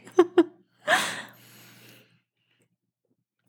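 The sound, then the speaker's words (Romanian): Two quick clipped breath sounds, then a held breath let out in one loud, sharp gasp that trails into a softer, airy exhale before silence. “am auzit cum ți țin respirația foarte lungă.”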